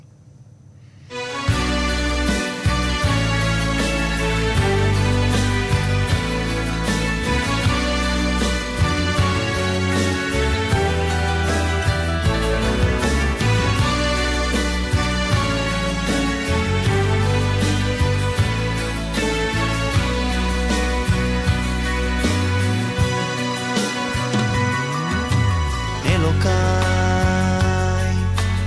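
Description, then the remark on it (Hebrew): A full-band song plays loud and steady from start to finish, with rich harmonic instrumentation, a strong low-end beat and dense layered melody, after a brief quiet opening. “בוא נשמע ככה לקראת סיום כן. עוד שיר אחד, ואנחנו אה, נפרד.”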